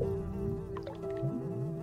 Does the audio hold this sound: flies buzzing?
yes